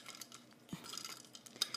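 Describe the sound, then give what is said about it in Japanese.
Ice cubes clinking and rattling against a glass of iced coffee as it is being drunk, in several quick, bright taps, fairly quiet, with a soft thud partway through and no talking. “Yes, I am drinking iced coffee right now.”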